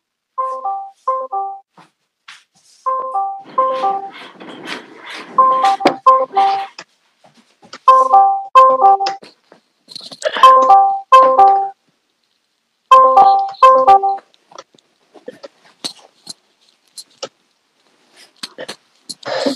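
A phone ringtone plays a short melodic chime phrase over and over, about five or six times in steady bursts, as an outgoing phone call goes unanswered, with faint voices in the background.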